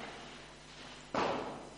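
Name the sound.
fireworks going off outside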